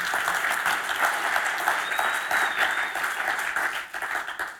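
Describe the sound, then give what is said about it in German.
Steady audience applause, a dense wash of many hands clapping at an even loudness throughout, with a faint high whistle briefly rising above it midway. “Und die, die jetzt nicht geklatscht haben, die haben mich angeschaut und gedacht, Mann, sieht aus wie 28.”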